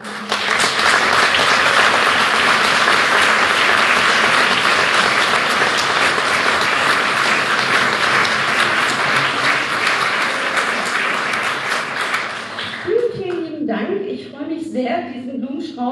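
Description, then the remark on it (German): Loud, sustained applause from an event audience for the organizing team, a dense wash of clapping that holds steady for about twelve seconds before fading as a voice begins speaking. “Äh, Bitte schön einen großen Applaus.”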